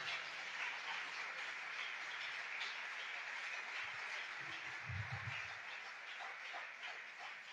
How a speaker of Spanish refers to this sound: Y dele otro aplauso a ese Dios que vive y que reina por los siglos.